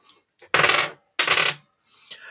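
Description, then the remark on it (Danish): Dice are rolled to draw a number between 1 and 38 for a giveaway, totalling 22; they rattle and tumble across a hard surface in two quick, loud, clattering bursts, with a few faint brief sounds before and after. “Yes, jeg har en ny kombination af terninger.”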